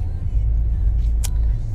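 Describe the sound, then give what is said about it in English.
A steady low rumble of a parked car's engine idling with the heater running, constant and unbroken, with a brief faint click or rustle near the end. The car's owner is inside Pure Fitness. “We got the car running, the heat keeping me warm right now shout out to the seat warmer as well.”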